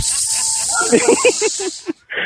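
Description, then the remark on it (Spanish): A plastic doll gives a long, steady shushing hiss telling someone to be quiet, running nearly the whole time, loud, with short voiced bursts underneath, then a brief break and a final shorter hiss. “ella lo manda a callar, la muñeca de Pidi”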